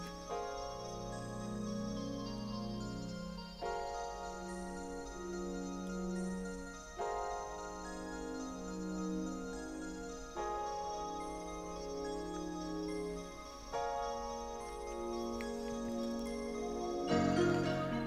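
Instrumental music plays alone, with sustained tonal chords and steady harmonic layers that shift every few seconds, plus a faint ticking pulse running through it.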